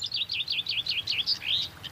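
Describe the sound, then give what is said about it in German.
A whinchat sings a mimicked grey partridge call: a quick run of high, wavering scratchy notes ending in a longer rising note, fairly faint over a low background rumble, with no talking. “Not a grey partridge in the distance, but windchat mimicry.”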